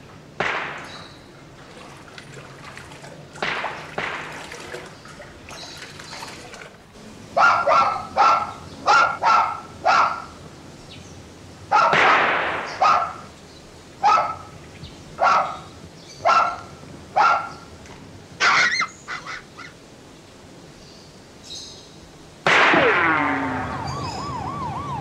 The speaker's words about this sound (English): So it's exterior, but it is very quiet. It's almost like no sound until those gunshots go off. And then even when those gunshots go off, they feel so small.